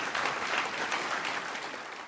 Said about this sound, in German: Applaus, vielleicht können wir hier einen Applaus einspielen.